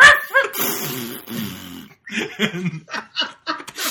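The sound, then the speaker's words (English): A person imitates a dog barking at a knock on the door: first a drawn-out, whiny yelp, then a quick run of short, sharp barks in an uneven rhythm. “everywhere every time he knocks it starts barking and then just immediately shits”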